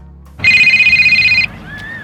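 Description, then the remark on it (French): A mobile phone rings inside a beach bag among towels and swimsuits on the beach at Pampelonne, Saint-Tropez, France, at aperitif time, with a bright, steady electronic trill for about a second, cutting off abruptly, over faint low background rumble with a fainter tone lingering afterward. “Les téléphones portables crépitent dans les sacs de plage, entre serviettes et maillots.”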